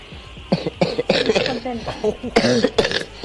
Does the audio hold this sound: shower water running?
no